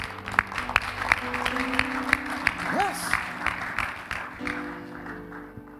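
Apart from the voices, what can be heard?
audience clapping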